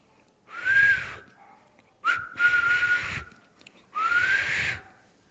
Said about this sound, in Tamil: என்ன இவர் விசில் அடிக்கிறார் என்று நினைக்கிறீர்களா எப்பொழுதுமே வால் டிஸ்னி அவர்கள் வேலை செய்யும் பொழுது உற்சாகமாக இந்த மாதிரி விசில் அடித்து கொண்டே வேலை செய்வாராம்